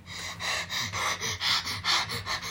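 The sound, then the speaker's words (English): A voice imitates a girl's rapid, rhythmic panting after running as fast as she could, about nine quick breathy bursts in steady succession, fairly loud with no words spoken. “She panted but it was two.”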